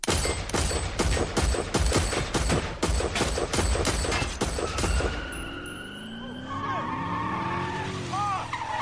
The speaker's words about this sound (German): Orlando Anderson oder Big Dre zogen die Glock und schossen insgesamt 13 Mal auf den Wagen.